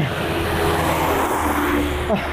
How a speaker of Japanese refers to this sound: 車の音めちゃくちゃうるさいね、ここのリキャップでやろうとしたら。なんですけど、まあ、まあまあ、ちょっとご容赦くださいというところで。